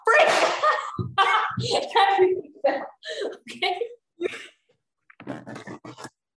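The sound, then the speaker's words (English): Scraping and scratching of fingernails against duct tape on the side of a bin, in rough bursts with short gaps, then a final longer rasp; a single brief spoken word slips in. “Whoever thought non-existent fingernails scraping against duct tape on the side of a bin would uh, creep you out, but uh, here we are.”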